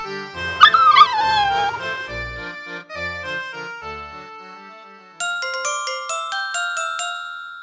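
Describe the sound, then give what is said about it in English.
A dog lets out a short, wavering howl that trails into whimpers, followed by quiet plinking musical notes and then a brighter run of chiming tones near the end. “Too slow, dog.”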